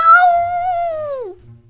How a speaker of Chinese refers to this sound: 威尔伯大叫着：“喵！”